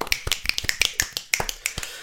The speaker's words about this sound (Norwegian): Vet du hva, vi takker de litt, men ja. Sånn klapper vi de, klapper vi de ut, da.